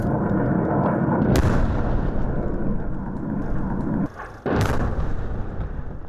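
Artillery fire rumbles steadily as the Armenian army fires on Terter and Adam, with two sharp, loud blasts cracking out a few seconds apart over a dense, continuous roar. The din briefly drops away just before the second blast. No voices.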